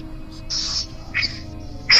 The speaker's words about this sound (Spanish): Se escucha una respiración tratando de ser tapada.